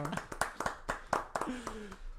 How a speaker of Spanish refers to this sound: Un aplauso.